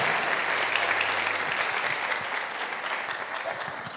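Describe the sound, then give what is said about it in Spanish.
An audience applauds the Lord during a Spanish-language sermon, a dense, steady wash of clapping that holds for several seconds at a fairly loud level, easing slightly toward the end, with no voices speaking over it. “Vamos, denle un aplauso al Señor si usted lo cree.”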